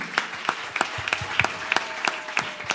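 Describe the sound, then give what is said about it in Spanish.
An audience at a church service claps together, applauding the Lord for a friend's birthday, in a steady, even rhythm, sharp bright claps landing roughly three times a second at moderate loudness, with no voices standing out. “Denle un aplauso al Señor por un año más de vida que él tiene.”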